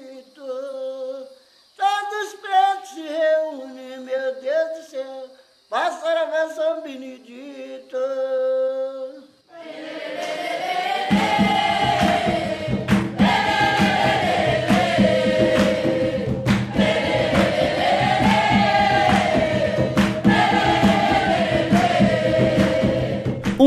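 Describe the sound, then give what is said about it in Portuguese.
A lone voice sings unaccompanied, then jongo hand clapping and pounding caxambu and candongueiro drums enter in a steady, loud rhythm, with voices continuing to sing over the percussion. The song is 'No dia 13 de maio', sung at a quilombo in southeastern Brazil. “palmas e o batuque ritmado dos tambores caxambu e candongueiro marcam o jongo que se popularizou entre os negros da região sudeste, principalmente no Vale do Rio Paraíba do Sul.”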